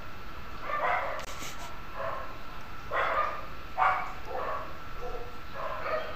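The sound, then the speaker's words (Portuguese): Several dogs bark repeatedly in short, overlapping bursts, some yips mixed in, at a man riding past on a bicycle, over a steady background hiss. No one speaks. “A cachorrada tá bem louca.”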